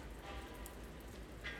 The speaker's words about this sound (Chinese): 三月二日，我现在正在家外面的走廊上。外面正在下雨，所以噪声可能会有点大。